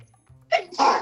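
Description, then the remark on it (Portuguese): A person sneezes once, with a short sharp intake followed by a loud, breathy burst. There is a low hum in the background and no talking. “Saúde.”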